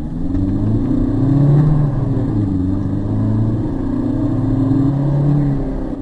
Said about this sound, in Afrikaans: Maar is die 2.2 turbo diesel wat beïndruk 'n heel moderne eenheid. Trek lekker sterk hierdie ratte. Kraglewering is 110 kW en opvallend is dat die 320 Nm wrinkrag albei laatoere beskikbaar is. daarmee saam geen turbotraagheid